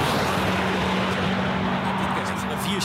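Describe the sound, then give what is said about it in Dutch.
A tuned race car roars hard as it accelerates uphill as fast as possible on a hill climb rising 300 metres, a loud, sustained, gritty engine drone with a steady low hum running through it for the full three seconds. “En daar gaan gekken met opgevoerde auto's zo hard mogelijk een heuvel op.”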